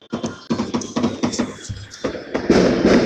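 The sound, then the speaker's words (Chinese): Fireworks and firecrackers go off at the arrival of New Year 2019 in a rapid, irregular string of loud sharp bangs, building into a dense, continuous crackling roar toward the end. “呀呀，吵死我了！呀！蹦蹦蹦！蹦蹦蹦！”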